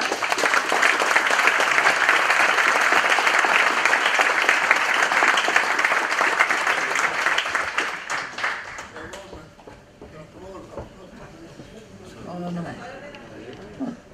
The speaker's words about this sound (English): A warm applause for Captain